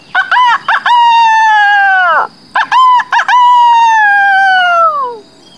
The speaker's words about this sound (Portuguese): Era uma manhã fresca de primavera. Eu acordei com o canto do galo.